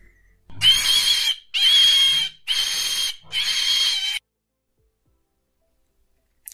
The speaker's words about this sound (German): Und das, was Sie jetzt hören, ist ein lautes Quieken, wahrscheinlich innerhalb der Uhr oder so, die Zeiger oder irgendwas quiekt. Es hört sich an wie das Quieken von einem Schweinchen.